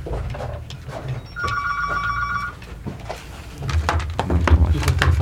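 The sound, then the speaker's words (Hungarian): A telephone rings once for an incoming listener call to a radio station, a steady electronic trill lasting about a second, over a low rumble and some clattering handling noises, with no voices. “Kapcsolás történik. Halló, Tilos Rádió?”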